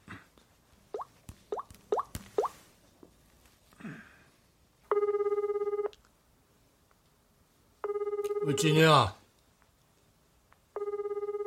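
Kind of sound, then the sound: signal or alarm, telephone ringing unanswered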